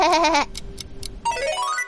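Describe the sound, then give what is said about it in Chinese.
A sheep bleats twice: first a loud, quavering bleat with a shaky tremolo, then, after a few soft clicks, a second bleat that climbs in pitch. “有皮袄，有毛，吃草的。啊，我知道了，是绵羊！”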